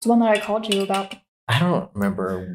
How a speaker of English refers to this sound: Sorry if you hear tinking. It's my it's my metal straw inside my white claw can.